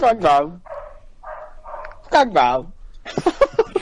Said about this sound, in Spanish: ¿De dónde vienen los sonidos del ladrido? De por aquí no